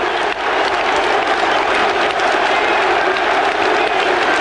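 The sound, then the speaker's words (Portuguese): A huge football stadium crowd roars and applauds at full volume after Mark Hughes scores for Chelsea, with fans celebrating and invading the pitch: a dense, continuous wall of cheering and clapping that holds steady throughout with no distinct voices standing out. “Bêbado invadindo o campo, torcida comemorando invadindo o campo.”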